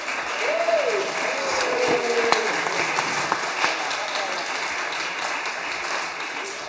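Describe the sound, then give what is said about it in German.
Steady audience applause congratulating Team Lucky Lux on second place, a dense crackle of many hands clapping at even loudness throughout, with a brief whistle-like tone and some faint voices mixed in early on. “Dann würde ich sagen, einmal einen kräftigen Applaus und herzlichen Glückwunsch an das Team Lucky Lux.”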